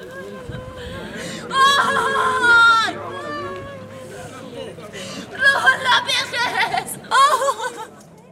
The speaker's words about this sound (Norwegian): To unge kvinner sitter på huk foran et dødt menneske. Det som høres, er gråt. Deres fortvilelse er bunnløs.